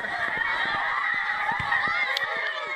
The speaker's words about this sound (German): große Pause in der katholischen Schule in Masanga im Norden Tansanias. Dutzende Mädchen in ordentlichen blauen Schuluniformen stürzen laut schreiend auf den Schulhof.